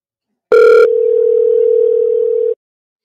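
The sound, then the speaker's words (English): A single ringback tone from an outgoing phone call: a brief buzzy burst, then a steady, fairly loud electronic tone held for about two seconds before cutting off. No one speaks. “Oh, it's not off. It's ringing. It's ringing.”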